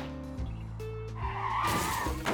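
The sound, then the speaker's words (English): A smuggler's car, its gas tank hit by four shots during a chase at about 60 miles per hour, loses control and hits a sidewalk: the engine roars as tires screech in a long, loud skid, the squeal rising into a harsh, noisy scrape near the end. Intense, with no voices. “Four shots hit the gas tank of the smuggler's vehicle, and the car lost control and hit a sidewalk.”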